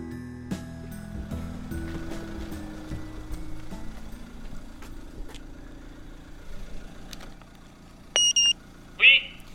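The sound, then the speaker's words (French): Two short electronic beeps from an intercom buzzer at the gate of Domaine Bernatas, a wine estate in Limoux, followed by a brief louder chime, over a steady low hum of an idling car engine. “Il nous, a, il nous a dit de sonner, donc euh, on sonne. On est, on est devant la grille.”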